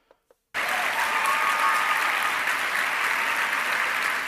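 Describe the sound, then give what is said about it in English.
A large crowd breaks into sustained applause after two faint isolated claps, the dense hiss of many hands clapping staying loud and steady for several seconds. “especially after a giant crowd claps about it.”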